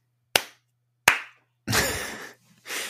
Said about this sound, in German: Äh, kriegst du, kriegst du Applaus.